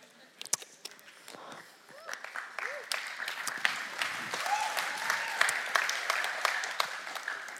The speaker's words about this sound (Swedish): Men nog första gången jag får en applåd för hur jag dricker vatten.